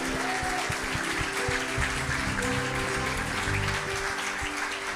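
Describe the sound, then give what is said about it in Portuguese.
A church audience claps in praise of God in a dense, steady wash of applause that holds at an even level throughout, with faint low sustained tones beneath the clapping. “Vamos aplaudir mais o nosso Deus, vamos?”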